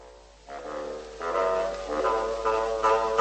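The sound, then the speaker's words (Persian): A bassoon plays a slow melody of several sustained, reedy notes representing Peter's grandfather, growing gradually louder, with no voices present. “پیتر یه پدر بزرگم داره که صداش مثل باسونه”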